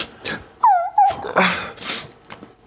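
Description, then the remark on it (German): High-pitched dog-like whimpering: two short whining cries that slide downward in pitch, surrounded by soft breathy snuffles and huffs, with no talking. “War das ein Hundegeräusch?”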